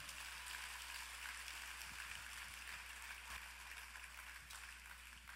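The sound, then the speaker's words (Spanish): An audience at a worship service applauds the Lord steadily for several seconds, a dense, continuous wash of clapping, fairly quiet and even throughout with no voices standing out. “Ahora dale un aplauso al Señor.”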